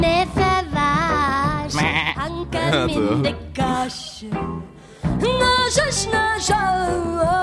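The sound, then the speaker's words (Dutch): A vocal line in the first song wavers with a bleating, sheep-like vibrato over steady musical backing, continuous and loud with a brief dip near the end. “net een schaap, ah, dat is het schaapje van de eerste nummer.”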